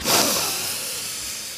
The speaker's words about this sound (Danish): Og jeg kunne godt tænke mig, at du lige prøver det med mig nu, at vi trækker vejret sådan helt ned i maven, sådan helt dybt.